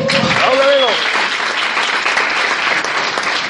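Steady, dense applause from an audience fills the whole stretch, loud, with a brief vocal cheer rising over the clapping near the start; the applause is for the speaker's sponsor.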